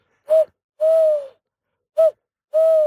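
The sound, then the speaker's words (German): A human voice imitates an eagle-owl, giving four loud hoots in a short-long-short-long pattern, each a steady low tone separated by brief silences. “Ich mache nicht meinen Edgar Walatze, ich mache meinen, was sind das, ein Uhu oder sowas oder ein Vögelchen”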